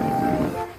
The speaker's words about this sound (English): Apologise for my phone there.